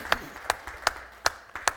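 Audience applause for two people, in a steady, rhythmic clapping pattern, with about five sharp claps spaced evenly over under two seconds against a faint room hum, and no talking.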